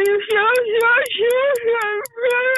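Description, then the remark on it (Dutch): A voice imitates how a popular song sounds with whiny, crying-style singing, drawing out wavering, sobbing notes in a near-continuous wail with a few brief breaks, fairly loud. “dat is hoe het nummer klinkt. Ze is aan het huilen. Ze is niet aan het zingen.”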